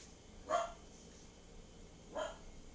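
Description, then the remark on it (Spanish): A dog barks twice, with a long pause between the two short, sharp barks. Each bark is moderately loud against a quiet background. “Anda ladrando”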